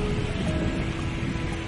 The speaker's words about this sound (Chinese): 你现在噪声了吗？这个噪声就是大海，哇！